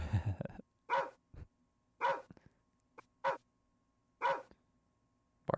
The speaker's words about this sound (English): bark, bark. None of this makes any sense. At this point, I'm just tapping all of my sound effects with all five fingers on my right hand, and I'm having a grand old time making these demands of this iPad